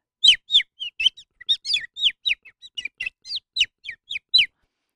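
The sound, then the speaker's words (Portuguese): A voice imitating peeping chicks: a quick, steady run of about twenty high, thin chirps, each short and sliding downward, fairly loud with no talking over them. “Não é galinhas, desculpem, é pintos.”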